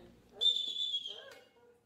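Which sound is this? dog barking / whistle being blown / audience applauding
whistle being blown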